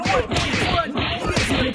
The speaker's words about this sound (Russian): Обрадованный мальчик вбежал в пролом и тут же оказался в самом центре свирепого побоища. Маленькие лохматые человечки нещадно колотили друг друга, пронзительно крича что-то совершенно несуразное.